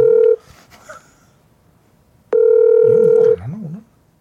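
A phone's ringback tone sounds twice over speakerphone as a call is placed to Park Myung-soo, a short steady tone at the start and a longer one about two seconds later, loud, with faint background murmur between.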